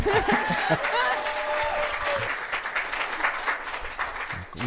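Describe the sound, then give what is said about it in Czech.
An audience at a church gathering applauds a woman speaker steadily for several seconds, a dense, continuous patter of many hands clapping, with a voice briefly audible over it at the start. “Zatleskáte jí?”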